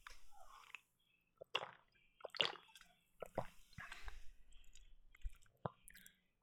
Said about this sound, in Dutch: Ehm, als ik eraan ruik, ruikt het inderdaad een beetje naar thee. Maar, nou, gewoon eens een slokje nemen.